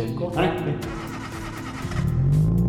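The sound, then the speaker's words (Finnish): A car engine mounted on a stand, not yet installed in a car, fires up and settles into a steady, low idle, then its pitch climbs near the end as it's revved, with faint voices in the background. “Oho, hienosti kehrää. Rauhallinen käynti ja sitten...”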